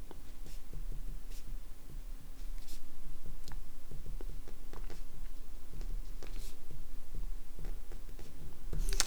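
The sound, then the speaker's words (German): Quiet scratching and tapping of a pen moving across paper, with irregular small clicks and strokes over a low steady background hum, no voices. “Doch, natürlich habe ich einen Stift.”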